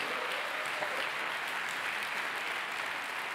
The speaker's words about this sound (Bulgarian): Начина по който ръкопляската ми показва, че не знаете какво означава провидение.